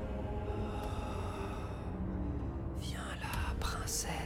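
A continuous, eerie whispering murmur with a breathy, hushed texture, holding steady throughout before sharper hissing sibilance rises near the end.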